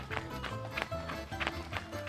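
Quick, light running footsteps with small steps patter in a steady, even rhythm, a soft tap every third of a second, with music playing underneath.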